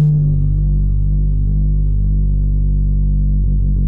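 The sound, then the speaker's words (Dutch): A very low underwater animal call drones steadily, a deep humming tone with layered harmonics that holds loud and unbroken throughout, with no voices present. It is made by a pad of fat and muscle tissue inside the animal's larynx vibrating. “En dat maakt die hele lage frequente mmm geluid.”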